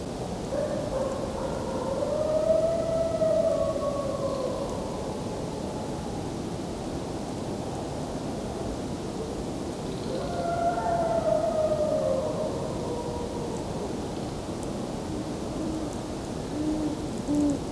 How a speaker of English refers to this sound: Here go the coyotes.